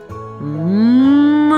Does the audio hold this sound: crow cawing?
no